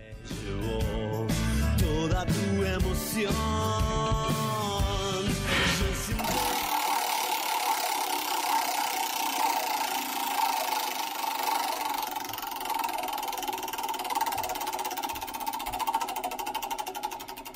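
After a few seconds of music, a casino roulette wheel spins with a steady, fairly loud mechanical whir and dense, rapid ticking that carries on evenly to the end.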